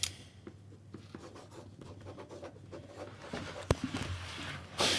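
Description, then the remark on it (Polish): Pen writing on paper cards as people write down who they think will win: a steady scratchy scribbling with short strokes and taps, a low hum underneath, and a sharp click near the end, with no talking. “E, dobra, piszemy na kartkach, bo ktoś doglądał ten.”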